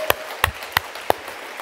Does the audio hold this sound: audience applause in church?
yes